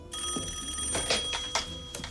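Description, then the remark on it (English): A telephone bell rings steadily for a couple of seconds, a bright metallic trill with a few sharper clattering bursts, with no one speaking. “Oh, first of all, Clint Eastwood is um, the best at answering the phone.”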